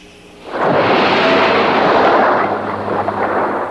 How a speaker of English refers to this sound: We needed something that everybody could say, that's a shark. We took a large uh, Coke bottle and we shook it up real good, threw it out on the cement and it goes shh.